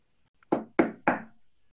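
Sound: knocking on a door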